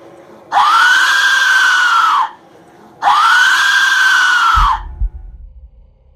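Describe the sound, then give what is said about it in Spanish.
Two long, piercing shrieks from a terror whistle, each about two seconds, with a rising-then-falling, scream-like wail. Loud, no voices, followed by a brief low rumble. “Es más, para que las personas entiendan, los observadoras y observadoras entiendan un poco por qué Robin dice lo que está diciendo, aquí les dejamos un breve fragmento de cómo se escucha uno de estos silbatos de terror.”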